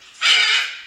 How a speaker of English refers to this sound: Can you guess what kind? Duck. Parrot. Duck. A parrot. Good work.